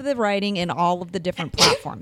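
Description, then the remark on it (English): A woman talks steadily, then breaks off with a single sharp sneeze, a loud burst of breathy noise, before speech picks up again. “I had to sneeze.”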